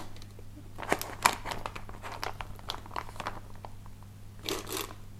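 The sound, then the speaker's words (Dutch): Crinkling plastic freezer bag rustles in short irregular bursts, with sharper crackles near the start and a louder rustle toward the end, over a steady low hum, as minced meat is spooned into the bag held open in a measuring jug. “Ik, uh, ik schep met een lepel gehakt naar, eh, naar de maatbeker waar de plastic zak in zit.”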